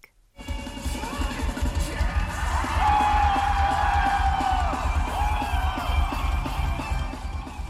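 A large festival crowd cheers and shouts continuously at a rock concert, a dense roar of many voices with rising whoops, steady and loud throughout, over a low pounding rumble of music.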